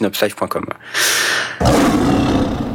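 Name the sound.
lion roaring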